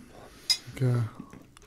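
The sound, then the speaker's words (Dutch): A sharp metallic clink of cutlery against a plate rings out, followed by a brief low murmur of a voice and faint scraping of dishes, as a chocolate cannabis dessert with an Oreo cookie base, brownie and white chocolate mascarpone filling is served. “Er zit een Oreo cookie bodem met wietboter, een brownie en een uh, wietboter witte chocolade mascarpone vulling.”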